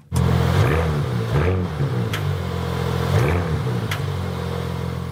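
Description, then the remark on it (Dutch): A Porsche Panamera plug-in hybrid sports car engine revs hard and loud, its tone swooping up and falling back several times in quick bursts as it accelerates, with no voices over it. “Ja, Porsche heeft de plug-in hybride Panamera nog wat eh, potenter gemaakt.”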